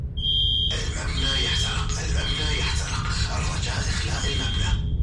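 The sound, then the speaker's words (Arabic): A fire alarm rings with a steady, shrill high tone that runs without pause, loud, over a dense, noisy background of commotion and indistinct voices. It sounds in a high-rise building where the speaker lives on the 34th floor. It turns out to be a false alarm. “وبيوم وفجأة رن جرس الإنذار”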